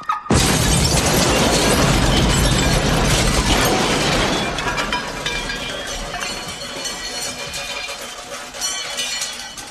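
A car blown up with plastic explosives goes off with a sudden loud blast, then glass shatters and debris clatters and tinkles down for several seconds, slowly thinning out. No one speaks.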